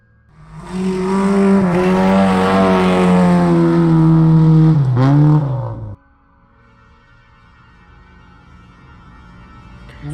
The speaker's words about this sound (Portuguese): Tu liga o carro com tudo, bota marcha ré pra poder pegar os outros sobreviventes, eles entram.